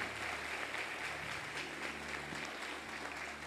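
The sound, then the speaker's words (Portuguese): An audience applauds God steadily, a dense, continuous wash of many hands clapping at an even level throughout, with no voices standing out. “Aplaude a Deus por isso.”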